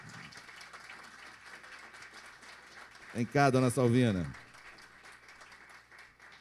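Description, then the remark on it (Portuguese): Steady audience applause at a church gathering welcoming a sister who is about to sing a praise song fills the whole stretch, a dense wash of clapping, while a man's voice briefly calls out loudly over it midway through. “Então, todo mundo receba com uma calorosa salva de palmas a Jesus,”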